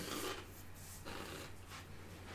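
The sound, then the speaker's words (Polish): A blade scrapes out of a sheath with a harsh metallic rasp, repeated in a few drawn strokes over a steady low hum, fairly loud, with no voices. “Słychać e, wyjmowaną e, klingę.”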